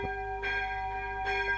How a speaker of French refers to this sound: Oh la barbe, la cloche. Parce que là, c'est l'heure. Presque toutes, tous les samedis.